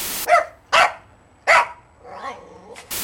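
A dog barks three times in quick, evenly spaced bursts, gives a softer whining yelp, then starts barking again. The barks are loud, with no one talking.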